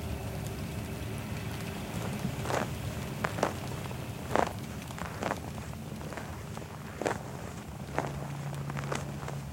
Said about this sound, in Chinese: 二零二二年的冬天，我们踩着雪来到了山西的五台山。当时呢，正好下完了一场大雪，靠近寺庙全不远，就能看见一片白茫茫的纯净的世界。